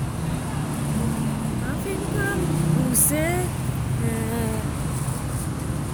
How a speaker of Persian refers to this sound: سر و صدای ماشینی که میشنوید